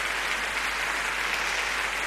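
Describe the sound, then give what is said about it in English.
Sustained applause from a large concert audience for conductor Sixten Ehrling and soloist Shura Cherkassky, a dense, steady wash of clapping with no gaps, holding at an even loudness throughout with no voices. “this applause is for the conductor, Sixten Ehrling, and the soloist, Shura Cherkassky.”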